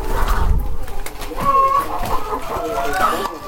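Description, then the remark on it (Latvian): Hens cackle while laying eggs in a series of loud, uneven squawks and clucks, with sharper drawn-out calls rising over a steady low background rumble. “vistiņas klādzina, kad oliņas dēļ.”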